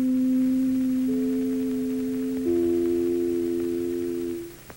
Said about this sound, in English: You can play a couple of little sounds and instantly represent your hmm. brand. So this is the NBC chimes in okay. 1933.